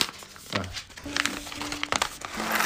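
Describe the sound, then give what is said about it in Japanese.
A plastic bag of Colombian Castillo coffee beans from Oniyama Coffee crinkles and rustles as it is handled and opened to take the beans out, a steady run of bright, scratchy crackles with a few sharper crunches, fairly loud and with no voices over it. “で、えー、この鬼山コーヒーさんの、ちょっとコーヒー豆も見ていきましょうか。よいしょ。豆をね、えー出しましょうもうコロンビアの豆ってちょっと大粒な感じでね好きなんですよね、えー、今回カスティージョ、えー、ですけれども”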